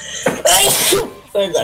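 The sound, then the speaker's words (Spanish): A person in Chile sneezes once, loud, with a sharp breathy burst framed by a short voiced intake before it and a brief vocal sound just after. “Salud.”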